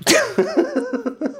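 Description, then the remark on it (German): A sharp sneeze bursts out at the start, followed by a string of short, rhythmic voiced gasps or chuckles that trail off over about a second. “Gesundheit”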